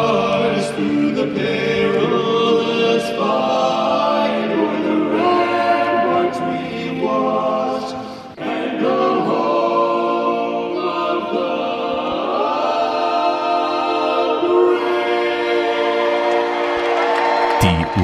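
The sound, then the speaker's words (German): The US national anthem sung a cappella before a test game between Dallas and Atlanta at the American Airlines Center in Dallas, one loud, sustained vocal line with long held notes and sliding pitch changes, unaccompanied by instruments and continuing steadily throughout. “US-Hymne, A Cappella, ….”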